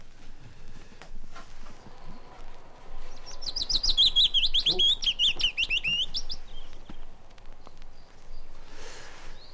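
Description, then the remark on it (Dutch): A willow warbler sings one clear, sweet phrase of quick notes that slide gently downward in pitch, over a quiet outdoor background with faint rustling. “De fitis is een kleine bruine vogel die zich vooral graag ophoudt in moerassige gebieden.”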